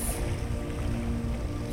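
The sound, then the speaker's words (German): A steady wash of ocean surf rushing against the shore, broad and continuous with a low rumbling undertone, no voices present. “Konzentriere dich auf das Rauschen der Meereswellen”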